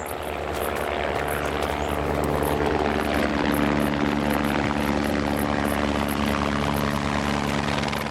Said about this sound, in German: Zeit für eine Warenlieferung per Hubschrauber.